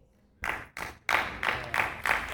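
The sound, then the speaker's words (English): An audience breaks into applause for the King of Kings after a brief quiet moment, the clapping loud with a steady rhythmic pulse, rising in waves and carrying on without any voices. “Yeah, you can give him an applause.”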